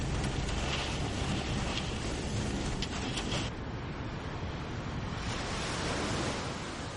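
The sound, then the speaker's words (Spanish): Ocean waves crash against the shore in a continuous, roaring wash of surf, with swelling surges and a brief lull midway, loud with no voices. “Cuando el viento, las corrientes y las mareas confluyen, las olas golpean las costas oceánicas y arrastran a su paso a personas, coches y árboles, provocando en ocasiones un retroceso del litoral.”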